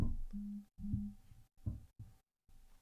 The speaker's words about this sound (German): Hat es bei dir gerade vibriert? Ja. Entschuldigung.